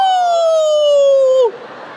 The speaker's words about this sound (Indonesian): Anjing melolong. Kenapa anjing melolong? Melihat setan lari.